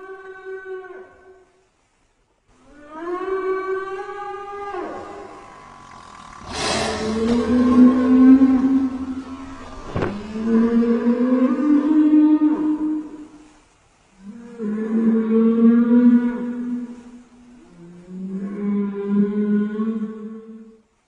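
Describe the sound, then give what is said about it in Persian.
Blue whale song, used to call a mate: a series of long, mournful moaning calls that rise and waver, separated by short pauses, loud and alone, with a couple of sharp knocks partway through. “نهنگ آبی همیشه حیوان رازآلودی بوده. عمق دریا به تنهایی زندگی میکنه. برای صدا کردن جفتش از یک آواز غمانگیز استفاده میکنه.”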